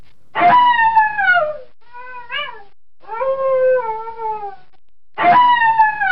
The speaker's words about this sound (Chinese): 小狼终于磕磕绊绊的完成了一个不太标准的狼嚎声。